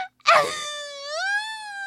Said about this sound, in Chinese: 我不要黄色的气球。 哭公主大哭起来